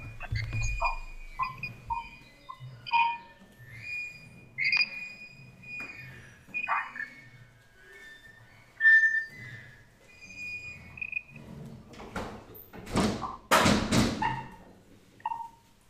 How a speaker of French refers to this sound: Excusez-moi un instant, je, vais fermer la fenêtre parce qu'il y a beaucoup de bruit à l'extérieur et ça va être très dérangeant pour l'enregistrement. Un petit instant.